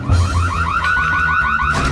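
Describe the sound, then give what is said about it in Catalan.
A home burglar alarm, left switched on, blaring, a loud electronic siren warbling in fast repeating rising sweeps with a steady high tone running through it, sounding alone without any voices. “Els pares s'havien deixat l'alarma encesa per si entrava algun lladre i pobre camell va despertar mig veïnat.”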